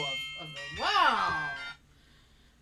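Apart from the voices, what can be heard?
doorbell ringing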